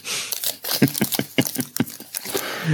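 A protein bar wrapper crinkles and rustles in quick, irregular bursts, mixed with small crunchy nibbling sounds of the bar being eaten, fairly loud, with no voices.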